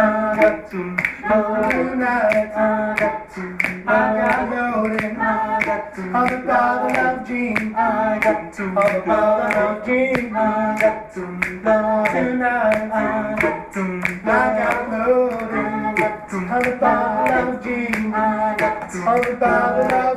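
A choir sings together in steady harmony while hands clap a regular rhythmic beat throughout, in a somewhat muffled recording of the group's last rehearsal.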